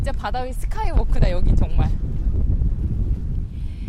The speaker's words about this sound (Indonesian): Di bagian ujung dari skywalk, angin yang bertiup terasa lebih kuat. Namun kita bisa merasa bebas sambil menikmati angin laut.